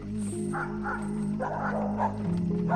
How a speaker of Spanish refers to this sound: Ningún rumor de gentes, solo el aullido de los perros.